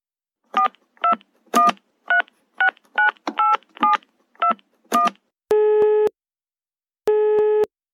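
A rapid series of about ten short touch-tone beeps as a telephone number is dialed for a call to Berlin, followed by two longer, evenly spaced ringing tones on the line. No one speaks.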